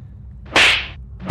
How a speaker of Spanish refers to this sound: Vuelvo a bofetear a Tomás.